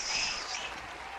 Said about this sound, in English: All is well, good people. All is well. Welcome one more time to the festival. Let's have a large round of applause for Rictavio and his master birdsman. The crowd kind of getting excited a little bit.